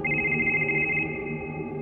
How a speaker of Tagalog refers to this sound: Bigla siyang natigilan nang marinig ang ringtone ng cellphone niya.